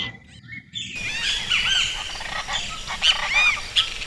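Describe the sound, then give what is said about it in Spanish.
After a brief quiet moment, a raucous chorus of chachalacas erupts at dawn, many harsh, overlapping cackling calls repeating loudly, with no voices present. “¿Has escuchado las chachalacas al amanecer?”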